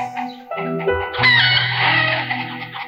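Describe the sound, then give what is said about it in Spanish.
Hens cluck in short, overlapping bursts, then a rooster lets out a long, loud crow that dominates the second half, with the flock still clucking. “El maestro le preguntó, ¿tienes gallinas? Sí, contestó el hombre. Pues mete todas las gallinas a tu casa.”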